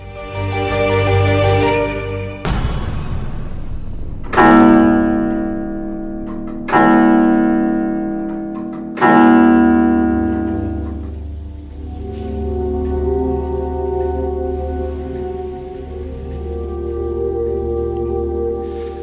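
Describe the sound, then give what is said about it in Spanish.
Several deep, heavy clock bell strikes sound a couple of seconds apart, each ringing out in a long reverberant hum that lingers and blends into a sustained tone after the last chime. “con las campanadas del reloj del Colegio Invisible vamos a dar la bienvenida a un querido amigo”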